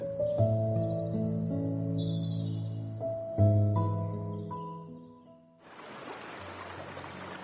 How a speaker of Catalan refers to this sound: Aquest és el so de les aigües del riu Noguera Ribagorçana en el seu pas pel poble d'Alfarràs, municipi situat a l'extrem nord de la comarca del Segrià, al límit de la Noguera.